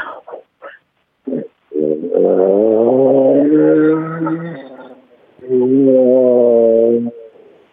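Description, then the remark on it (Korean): A 68-year-old person imitates a motorcycle engine with their voice: a few short sputtering bursts, then a long rising, revving drone, a brief pause, and another sustained revving hum, fairly loud. “아 처음 처음 재밌었는데 약간 오토바이가 이렇게 시시가 약해.”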